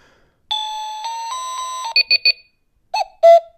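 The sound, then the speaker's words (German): A loud electronic alarm clock steps through its ringtones as the rightmost of its three buttons is pressed: a sustained buzzy tone that shifts pitch, then three quick beeps, then two short separate chimes, with no talking. “Rechts die Taste, ganz rechts von den drei Tasten die Taste, die ist dazu da, um den Klingelton.”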